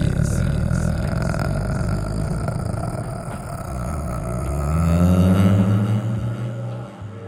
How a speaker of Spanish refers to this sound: sabía si te estabas durmiendo, estabas eructando. Es que, Estaba haciendo lo eh, intrigante. Es que estaba entre un eructo gutural y aparte como de esos camioncitos de que van hacia las carreteras. Y... Eso suena más como un perro.